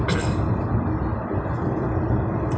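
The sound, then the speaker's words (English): A steady, dense roar of heavy freeway traffic with buses and trucks, low engine rumble from the large vehicles and occasional higher hissing bursts, continuous and fairly loud with no voices. “I'm checking out this traffic um, freeway switching up”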